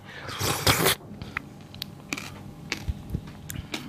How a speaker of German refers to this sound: Ich schlürfe mir jetzt einen ab hier vom Löffel